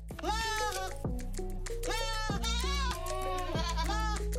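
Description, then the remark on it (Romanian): Goats bleating loudly, several wavering, nasal cries following one another almost without pause, with no talking. “și cred că aș putea să mă mut acolo și să cresc capre.”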